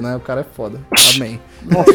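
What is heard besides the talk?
sneeze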